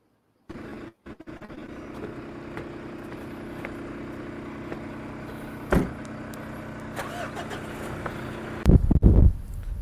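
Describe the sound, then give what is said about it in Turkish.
A car drives along steadily from inside on the road from Çökertme beach toward the village, its engine humming with a low, even drone, occasional thumps and rattles as it rolls over an uneven road, with a louder bump near the end. “Bindik bir arabaya gidiyoruz çökertme yolunda.”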